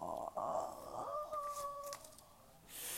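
A puppy whimpers, a thin, high-pitched whine that rises and holds in a couple of drawn-out cries lasting over a second, then fades into quiet background noise.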